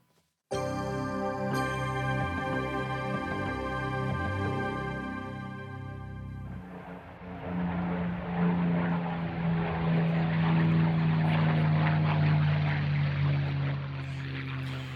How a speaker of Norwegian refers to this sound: Lyden av seier, sa britene når de hørte dette under annen verdenskrig. Det legendariske jagerflyet Spitfire med sin V12 Rolls-Royce Merlin-motor.